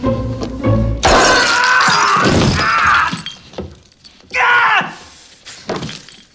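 A few plucked string notes, then a loud burst of glass crunching and shattering as a barefoot man entering a house steps all over broken glass ornaments, followed by his pained groans and yelps.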